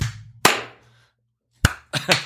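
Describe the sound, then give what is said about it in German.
Several sharp hand claps ring out close by in loose, uneven succession, a couple landing nearly together with ragged timing and short decaying tails, with no talking. “Sollen wir nochmal klatschen?”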